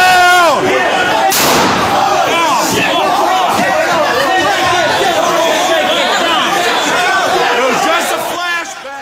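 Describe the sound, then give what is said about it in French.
A single sharp gunshot, a real bullet fired during the riot at the Capitol on 6 January that killed a woman protester, cracks out early on, cutting through a dense, noisy crowd whose overlapping chatter and shouting continue loudly throughout. “Non, ce n'était pas un flashbang, c'était une balle euh, réelle.”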